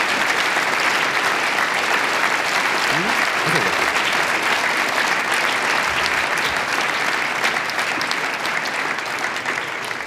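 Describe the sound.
Sustained, loud, thunderous applause from a large audience welcoming a singer at a premiere performance, a dense, even roar of clapping with a brief faint voice rising underneath near the middle.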